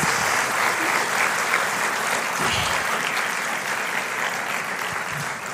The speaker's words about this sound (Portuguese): Dê para Jesus mais uma forte salva de palmas.